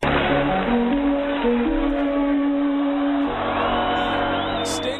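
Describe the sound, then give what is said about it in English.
Loud, continuous roar of a large stadium crowd cheering, with whoops and shouts woven through a dense wall of noise that holds steady for the whole stretch. “Over the weekend, here on Arizona Sports 98.7 FM, right we had a hot take when it comes to crowd noise.”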